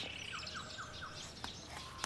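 A series of short, descending moorhen calls repeats at a steady rhythm, faint, by a lake, with a few sharper clicks toward the end and no talking.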